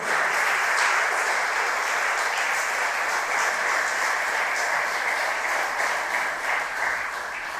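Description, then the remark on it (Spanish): An audience applauds "the king", a dense, sustained crackle of many clapping hands that holds at a loud, even level for several seconds and eases slightly at the end. “Dale un aplauso al rey.”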